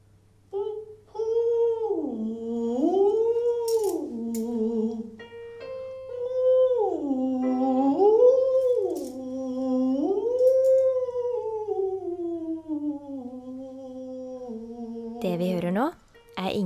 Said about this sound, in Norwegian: Eller hun tar seg noen toner i vaskekjelleren der hun bor.